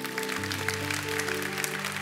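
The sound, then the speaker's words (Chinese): A church audience applauds itself with steady, dense clapping that continues for a couple of seconds, layered over sustained low keyboard or organ chords. “我们现在正在做的事情，给自己一个的掌声，可以吗”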